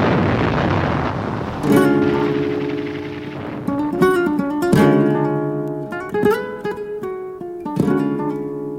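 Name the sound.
artillery cannon firing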